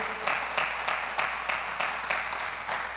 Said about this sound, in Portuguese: Você pode aplaudir a Ele por isso, em nome de Jesus?